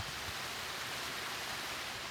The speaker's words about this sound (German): Ja, man läuft hier etwa einen Meter über dem Bach auf einem schmalen Pfädchen ja, entlang des Pulsbaches und da ist er. Der hört, erste Wasserfall. Hört ihr ihn?